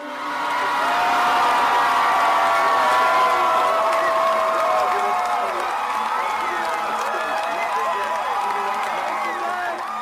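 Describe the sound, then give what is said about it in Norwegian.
A huge crowd erupts in sustained, loud cheering as CNN projects that Barack Obama will be the 44th president of the United States, a dense roar of many voices with whoops and shouts rising above it, continuing at full intensity for the whole stretch. “Og da eksploderer folkehavet.”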